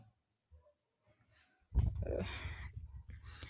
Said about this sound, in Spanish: Si escuchan alguna, alguna respiración extraña, es que mi salchicha está aquí.